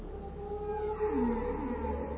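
Whale song: a long, low moaning call that slides downward in pitch, with sustained tonal hums beneath, echoing over a steady low rumble. No one speaks.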